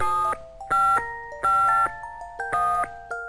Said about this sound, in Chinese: 他拿出电话本，开始打电话。